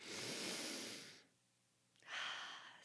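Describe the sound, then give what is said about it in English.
A voice imitates a three-year-old's slow, deep breathing: one long, airy exhale lasting about a second, a brief quiet pause, then another breathy breath, fairly loud with no speech. “and I'm like, Patience is just deep breathing.”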